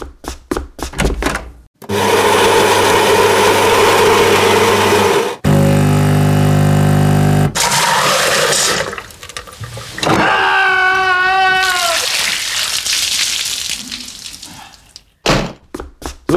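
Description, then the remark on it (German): A coffee vending machine runs through its cycle: a loud motorized whir and grinding, a lower humming stretch, then liquid pouring with a rising gurgle, bracketed by clunks and clicks, with no talking. “Sag mal, ist das eigentlich so eine Maschine, wo unten noch Plastebecher rauskommen?”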